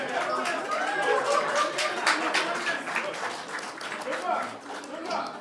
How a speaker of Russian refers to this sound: Бля, вы так аплодируете, как будто еще в курсе, кто это вообще такие.